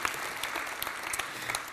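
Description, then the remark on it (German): An audience claps steadily, a dense patter of many hands with small peaks of sharper claps throughout, fairly loud and with no speech over it. “Applaus”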